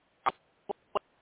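A phone connection breaking up: three short, muffled bursts of garbled sound cut off by dead silence, the first slightly longer, the other two brief clipped blips.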